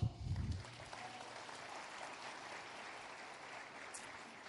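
Audience applause fills the whole stretch, a dense, steady crackle of many hands clapping at an even level, with a brief low rumble at the very start.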